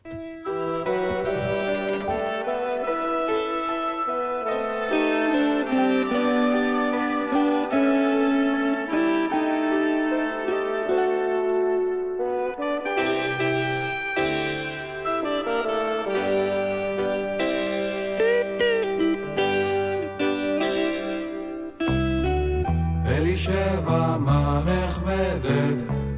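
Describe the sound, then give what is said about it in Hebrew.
A song from a children's album made for a festival of poets' songs for children plays: a steady, full-band song with layered harmonic instruments and a bright melody; the arrangement thickens near the end with a heavier, brighter section. No voices speak over it. “האלבום הזה מאוד מוצלח, ואני אשמח לשמוע את השיר.”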